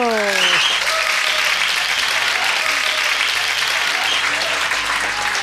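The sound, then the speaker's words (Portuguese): An audience claps steadily for several seconds for a guest being introduced, a dense, sustained round of applause, with a brief vocal tone fading at the start. “Palmas para”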